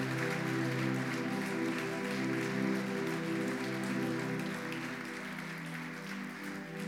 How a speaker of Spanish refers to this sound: Puedes darle un aplauso a Jesús. Bien fuerte. Bien fuerte.